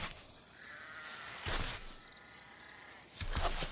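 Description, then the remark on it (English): Restless sheep kept for temple sacrifices bleat at night in stables beside the Tower of the Flock at Migdal Eder, in two loud bursts, one around the middle and a stronger one near the end, over a steady background hum, with no talking. “These stables house sheep for the temple sacrifices. But this night, they are restless.”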